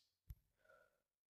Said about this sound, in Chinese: 呃，怎么听到两个呼噜声？秃头章鱼不可思议的盯着小猫的脸，呼噜声越来越大，最后小猫的嘴也大大的张开了，咕咕嘶嘶，啊，两张嘴，四只眼睛！